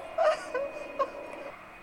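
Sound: crying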